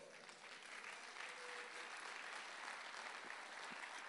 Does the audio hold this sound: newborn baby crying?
no